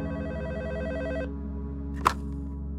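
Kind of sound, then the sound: signal or alarm, telephone ringing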